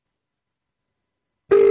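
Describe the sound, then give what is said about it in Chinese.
After more than a second of silence, a loud, steady mid-pitched telephone tone suddenly starts and holds, the kind of signal heard when a phone call fails to go through. “哎，好神奇，这个电话打不通哎！”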